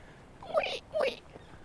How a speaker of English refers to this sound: what is this sound? Oh, it's a tree. the tree is squeaking in the wind.